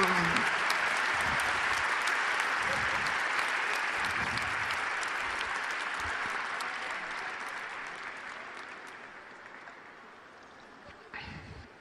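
Sustained applause from a large audience while the speaker pauses to drink water, dense and steady clapping that gradually fades in intensity over about twelve seconds, with a few faint voices mixed in.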